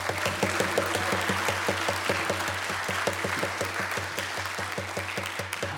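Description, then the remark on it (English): A crowd at Bridges Community Church claps steadily for several seconds for the seniors, dense overlapping applause at a fairly consistent loudness, with no voices over it. “And uh, why don't we give uh, our seniors um, a round of applause again?”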